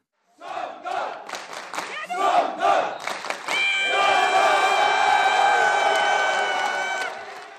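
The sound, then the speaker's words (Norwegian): A crowd erupts in loud, sustained cheering and howling with joy over a village football team's promotion to the top-division Eliteserie, starting with scattered shouts and rhythmic bursts before swelling into a continuous, joyful roar of many voices. “Et hyl av glede. Glede over et opprykk, men vel så mye over at et fotballag fra ei bygd kan tukte klubber fra store byer.”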